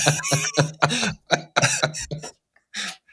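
A rapid fit of coughing into the upper arm, seven or eight rough voiced bursts in quick succession, sounding slightly muffled, then a short pause and one last cough.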